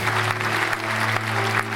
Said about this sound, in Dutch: Geef eens een hartelijk applaus.